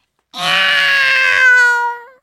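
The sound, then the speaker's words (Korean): A very large cat lets out one long, drawn-out meow, loud, rising slightly then trailing off with a wavering, nasal tone, heard alone without any talking, as dinner is set at an elderly person's home in the countryside. “저녁상이 차려지자 고양이도 모습을 드러냈는데 그 모습이 어찌나 큰지 호랑인 줄 알았어요.”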